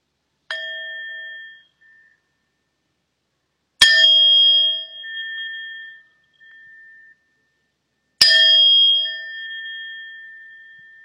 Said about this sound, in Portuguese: eu vou convidar o sino a soar três vezes para a gente começar a nossa prática. E depois, no final, eu vou convidar o sino a soar uma vez para a gente interromper.